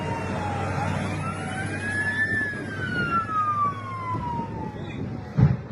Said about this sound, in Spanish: el del accidente de Lima, en la capital de Perú, esa colisión entre un avión que despegaba, una 320 Neo de Latam Perú, y un camión de bomberos del aeropuerto limeño que participaba en un simulacro.